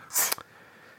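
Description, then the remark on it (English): A single sharp sneeze, a short hissy burst ending in an abrupt snap, fairly loud, followed by quiet. “bless you”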